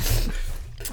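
A close, forceful spit-take: someone sprays a mouthful of liquid out in a wet, sputtering burst, followed by a brief second hiss of breath near the end.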